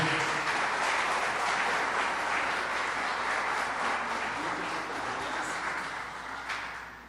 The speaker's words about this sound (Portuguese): e eu peço mais uma vez uma salva de palmas.